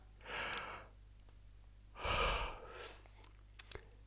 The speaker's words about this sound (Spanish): Cuando llegué a la universidad a hacer la presentación, me sentía todavía nervioso pero además tenía un sueño incontrolable y no paraba de bostezar. Bostezar...